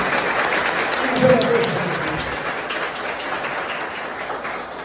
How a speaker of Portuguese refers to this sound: Uma salva de palmas para o prefeito de São José de Minas.